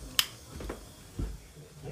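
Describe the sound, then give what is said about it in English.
A light switch clicks off once, a crisp snap near the start, followed by quiet background with a couple of faint, dull low thumps. “Right, if you listen carefully, oh, better switch light off.”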